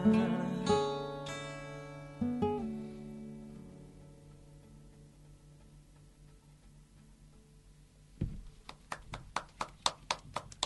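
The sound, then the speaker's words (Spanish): Sustained music chords ring out and fade into quiet, then a few scattered hand claps start up, sharp and irregular, coming a little quicker toward the end. “Yo creo que te, ya te llevaron un montón de aplausos ahí.”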